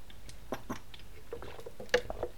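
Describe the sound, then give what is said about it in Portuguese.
Someone takes a sip of cool water from a bottle, quiet: soft wet mouth sounds, small clicks and a gulp or two, with no talking. “Portanto, deixa-me só aqui dar um trago de água na minha boteia.”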